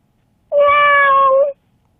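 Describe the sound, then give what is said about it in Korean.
A person imitates the meow a house cat makes when it hits a dog: one sustained, nasal mew about a second long, loud, with a slightly falling pitch at the end, surrounded by silence. “집에 고양이는 또 강아지 때릴 때 하는 그러면 고양이 소리.”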